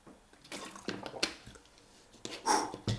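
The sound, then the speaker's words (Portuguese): Someone takes a sip of water: a few short, wet slurps and gulps spaced irregularly over a few seconds, with no talking. “vou beber um bocadinho de água.”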